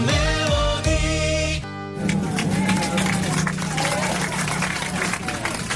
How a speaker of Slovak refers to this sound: ale je to tlieskanie v lietadle. Eh, tí, ktorí ste lietadlom cestovali na dovolenku, tak ste sa asi stretli s tým, že po pristáti cestujúci tlieskajú.